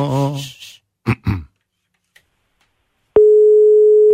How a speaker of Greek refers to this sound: Αν χτυπήσει η γραμμούλα, αν χτυπήσει το τηλέφωνο.